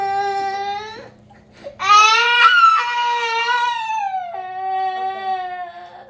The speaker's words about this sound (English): Do you have compassion for him? He's crying now. You made him cry.